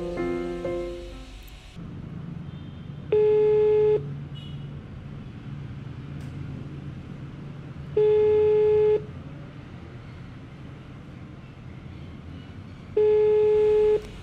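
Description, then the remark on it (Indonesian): An outgoing phone call's ringback tone sounds three times, each steady beep lasting about a second with long pauses between, heard clearly over a low background rumble. “Ya udah deh, langsung aku telepon aja ya.”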